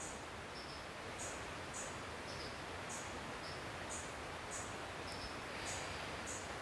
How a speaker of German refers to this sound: Wo immer du bist, außer du fährst Auto, schließ gerne deine Augen, nimm mal bewusst die Umgebung hier wahr. Hör die Vögel, das Wasser